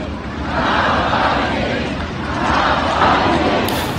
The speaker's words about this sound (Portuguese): Uma cerimónia com grande controle policial por parte das autoridades russas. Certo é que várias centenas de pessoas seguiram este cortejo e gritaram cânticos de apoio a Alexei Navalny.